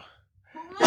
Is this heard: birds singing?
no